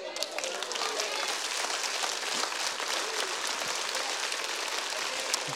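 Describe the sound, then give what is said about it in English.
An audience applauding: a dense, steady wash of many hands clapping that holds at an even level for several seconds, with a faint voice briefly audible at the start. “Listen, whoa, whoa, whoa, before you clap.”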